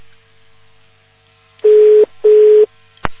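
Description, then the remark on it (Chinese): Two loud, steady electronic telephone beeps at a single mid pitch, each lasting about half a second with a short gap between, followed by a brief click, over a quiet line hiss, on a phone call that got through but does not work. “要命了，打通了这这电话也不行。”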